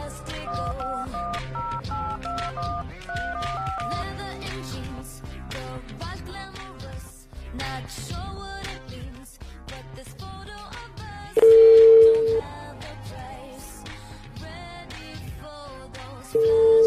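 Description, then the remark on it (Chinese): Telephone dialing beeps over background music, followed by a loud, steady busy-signal tone that cuts in for about a second and returns at the end. No one speaks. “嗯，那我打最后一个电话吧。”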